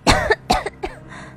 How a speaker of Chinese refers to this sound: 一口水呛了进来，我剧烈的咳嗽起来。